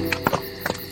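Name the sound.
horse hooves clip-clopping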